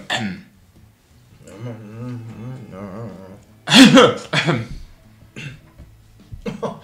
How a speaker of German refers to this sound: Ja, ähm, ich bleib quasi so in der äh, Mitte der Bänke stehen und äh, räusper mich einmal so.